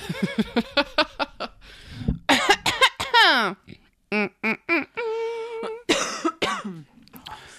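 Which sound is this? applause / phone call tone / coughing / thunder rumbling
coughing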